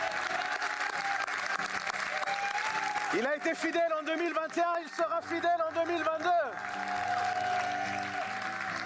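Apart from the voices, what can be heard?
audience applauding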